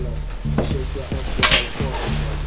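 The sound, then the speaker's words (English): A quick raspy zip of a sweater zipper being pulled rises briefly over a steady low hum, with a faint second scrape shortly after. Moderately loud, with no talking. “Yeah, I have like three sweaters. You see, you can hear the zip.”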